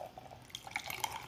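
A freshly opened beer pours and fizzes softly, a quiet liquid trickle with scattered crackling bubbles and light drips, no voices.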